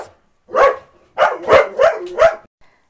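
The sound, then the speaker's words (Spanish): Dogs barking: one bark, a short pause, then a quick run of four more sharp barks in a row, fairly loud with no talking over them. “Y perdonen, perdón, alerta de perros.”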